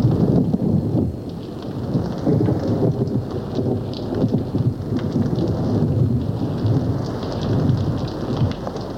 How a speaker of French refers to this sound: Il tonne et pleut.